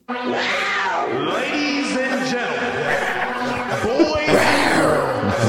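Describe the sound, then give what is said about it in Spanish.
A person's voice imitates a jaguar roar: loud, drawn-out yowling growls that rise and fall in pitch, continuing unbroken for several seconds. “échate tu rugido de Jack.”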